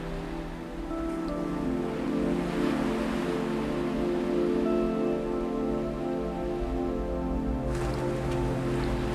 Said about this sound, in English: You notice you are on a beautiful island and you can hear the ocean gently washing up on the shore.